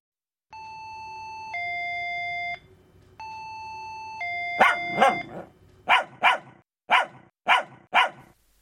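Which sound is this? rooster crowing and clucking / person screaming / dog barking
dog barking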